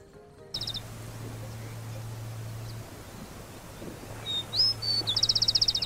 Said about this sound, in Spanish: vemos revoletear al copetón Capeto en su lucha diaria por conseguir pareja, riñendo con los sonidos extraños del entorno